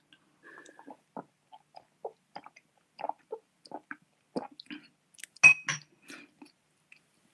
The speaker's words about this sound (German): also ich habe jetzt einen Schluck genommen, oder es waren eigentlich mehrere Schlucke, wie man gehört hat. Er schmeckt schokoladig. Also erstmal riecht er eben nach, nach Espresso.